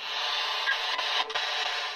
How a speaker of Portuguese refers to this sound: Olha, gente, a gente teve interferência nos sinais mágicos de das ondas que viajam pelo ar.